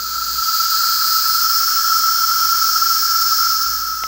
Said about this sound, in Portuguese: É, o barulho é bem alto e há quem se incomode muito com ele, né? Só que esse é o som da cigarra, que inclusive já foi tema aqui dos Sons da Terra.